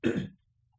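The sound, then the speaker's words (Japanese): A single short throat clearing, fairly loud, lasting about a third of a second before falling to near silence. “ちょっと咳払いします。”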